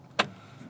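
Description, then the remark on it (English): A car's steering wheel being adjusted lower: one sharp mechanical clunk, then a low, steady hum inside the vehicle and a faint second click at the end. No one speaks. “The Natterhorn barred my car yesterday, and the wheel is adjusted lower. That is a come on, mom. There we go. I'm trying to fix this wheel right now.”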